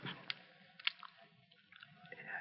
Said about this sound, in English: Chew a little louder